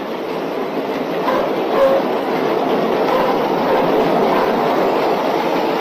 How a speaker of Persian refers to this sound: مترو یه دقیقه بیشتر طول نمیکشه